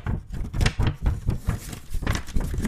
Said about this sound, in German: Kannst du, äh, bevor du weiter vorliest, äh, mal den Bogen Papier so vor dem Mikrofon so wiggeln, damit